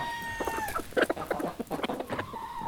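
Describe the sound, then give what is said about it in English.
Chickens cluck in a busy, uneven series of short, bright calls, fairly loud, with a faint steady tone drifting underneath at the start. “Today, my story is about a different common animal the chicken.”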